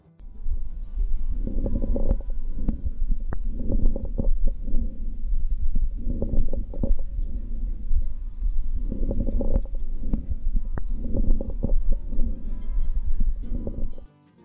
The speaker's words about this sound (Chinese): 我们会把那个连接一起贴上，大家可以听看，这是人的肺音啊，只是说动物的可能听起来不会真的落差太大。